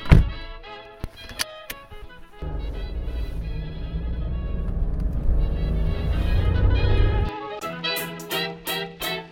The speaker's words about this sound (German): Ich sitze jetzt hier im Auto und fahre los, also seid dabei.